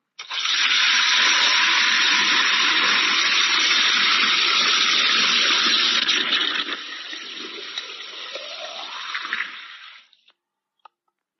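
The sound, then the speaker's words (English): Hot water gushes steadily into a jug for several seconds, loud, then the stream thins and the pitch rises as the vessel fills before stopping. The jug is being filled to pour water over someone's feet for wudu. No one speaks. “Instead, she filled the jug with water.”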